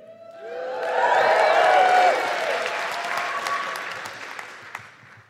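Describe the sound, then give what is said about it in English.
A crowd breaks into applause and cheering, with whoops and rising voices swelling to a peak in the first couple of seconds before the clapping steadily tapers off. “Don't cheer that.”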